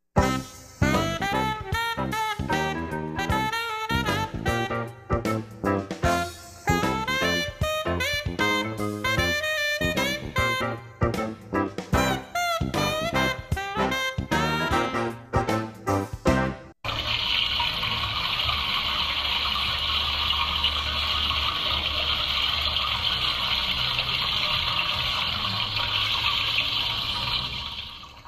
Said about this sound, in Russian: вот такое ощущение, что я правда в туалет, потому что я вошел и сразу вот такой звук воды.